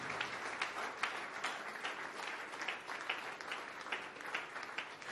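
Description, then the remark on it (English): An audience claps together as praise to Jesus in a dense, steady burst of applause, many hands overlapping into a continuous crackling wash that holds at an even level for several seconds without any talking. “Please, if you have hands, you can give Jesus a big clap of praise.”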